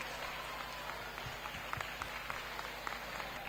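An audience applauds steadily for all the companies taking part, a dense wash of many hands clapping with a few sharper individual claps standing out, sustained at an even level throughout.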